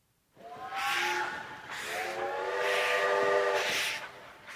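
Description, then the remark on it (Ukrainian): A steam locomotive whistle sounds in repeated long, wavering blasts over the hiss and rumble of a train at the railway station in Kraków, fairly loud, with no voices. “Цей звук паровоза чули українці на вокзалі Кракова наприкінці 19-го початку ХХ століття.”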